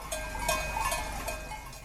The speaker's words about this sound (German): Geradezu meditativ läuten aus der Ferne die Glocken der Kühe und leise schlagen die Wellen des Achensees an das Ufer.